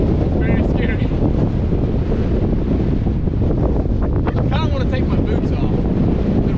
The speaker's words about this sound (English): Badwater Basin in valley. 58 mile per hour wind. What could go wrong? What could go wrong? It's really windy.